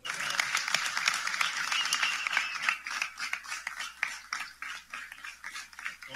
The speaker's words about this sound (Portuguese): O governador chega sobre aplausos aqui dos seus apoiadores políticos, é cumprimentado nesse momento.